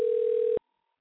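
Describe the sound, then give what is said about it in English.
A steady, loud telephone dial tone of an outgoing call made with the Blog Talk Radio calling tool hums for about half a second, then cuts off abruptly into silence. No voices. “They changed around the Blog Talk Radio tools here, and uh, you now have the ability to call somebody.”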